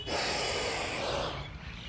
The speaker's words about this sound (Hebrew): ולכן, בואו ננשום נשימה חסרת מאמץ אל המקומות המדויקים לנו, וזה מדויק לנו לנשום נשימה כזאת.